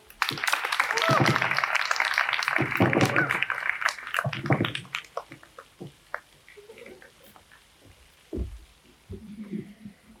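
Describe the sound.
An audience bursts into loud, dense clapping for the last poet of the evening coming on stage, lasting about four seconds, then thins out and fades, leaving a few scattered claps and quiet voices afterward.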